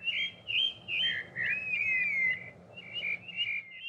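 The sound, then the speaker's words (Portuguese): A single bird sings before dawn, a little after two in the morning in early spring. Its clear, whistled phrases rise and fall and repeat every half second or so over a quiet, low background hum, with no other sounds around it. “Aí eu dei um Google aves cantam na madrugada.”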